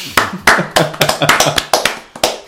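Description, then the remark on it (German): Loud, sharp hand claps, about a dozen in quick, slightly uneven succession, like one or two people applauding briefly for someone at the microphone who does not find the DSA combat system too complicated. No voices are heard. “Okay, Achtung, liebe SK Podcast, liebe Hörer im SK Podcast Land, wir haben hier einen am Mikrofon sitzen, dem das DSA-Kampfsystem nicht zu kompliziert ist. Applaus dafür.”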